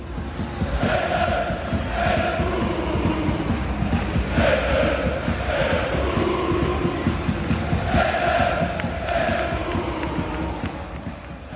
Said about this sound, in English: After the final whistle of a recent home win, the chants started to ring out from Utrecht fans.